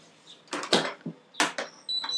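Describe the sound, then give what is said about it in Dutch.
A dishwasher beeping with short, high electronic tones, mixed with loud clattering and clunking bursts as someone attends to the machine to stop its beeping. No one speaks. “Oh, de vaat, ik doe even de vaatwasser. Ehm, ik even naartoe lopen, want anders blijft die piepen.”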